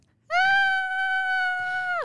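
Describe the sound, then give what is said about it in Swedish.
A person imitates the groan an animal makes when struggling out of an uncomfortable situation or over an obstacle, with one loud, high, drawn-out vocal cry that holds steady for nearly two seconds before dropping off sharply at the end. “Ja, alltså, det var det mesigaste skrik jag hört i mitt liv tror jag.”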